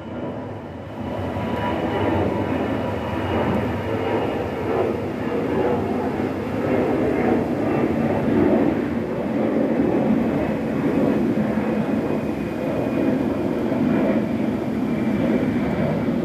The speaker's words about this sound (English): Okay, another plane